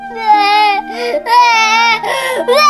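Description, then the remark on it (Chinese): A little bear cries when the children won't play with it, voiced as a high, wavering childlike wail in several loud sobbing bursts with brief catches of breath between them, heard on its own without other talk. “小朋友们不跟小熊玩的时候，小熊哭了。”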